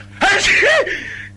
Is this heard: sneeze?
yes